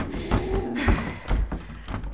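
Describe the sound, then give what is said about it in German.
A locked door is shoved and thumped several times, producing dull, irregular knocks and rattling bumps, with no voices. “Die Tür geht nicht auf.”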